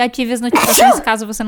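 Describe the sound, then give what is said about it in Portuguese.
A single short, muffled sneeze bursts out in the middle of someone's speech, and the talking resumes right after. “Saúde”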